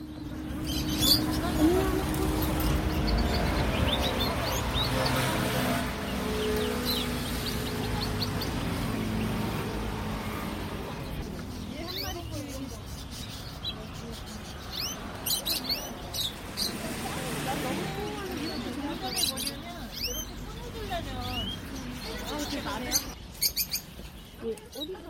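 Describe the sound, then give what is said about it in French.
Birds chirp and twitter in short, repeated calls, mixed into a steady low rumble of engines that stays loud throughout; the bird sounds come and go over the noise. “Bref, entendre le chant des oiseaux se mêler au bruit des moteurs, c'était assez particulier.”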